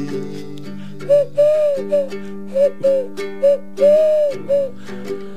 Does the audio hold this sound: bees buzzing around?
no